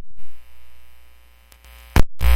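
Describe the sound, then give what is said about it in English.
A steady electrical hum picked up by a microphone, with a buzzy harmonic tone, drones throughout, then gives way to a sharp crackle and a harsher, louder burst of noise at the end. “yeah, I was getting a bit of a hum. You hear that?”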